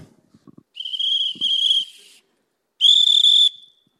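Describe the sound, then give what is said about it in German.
A shrill train conductor's departure whistle sounds in two loud blasts, a long one that briefly wavers, then a shorter one after a pause, with a few faint knocks before. “Einsteigen bitte. Der Zug fährt ab.”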